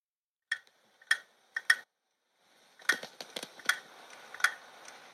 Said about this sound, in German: Ah, hier. So hörte sich die Playstation an.